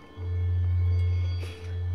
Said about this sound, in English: But that's what these singing bowls are for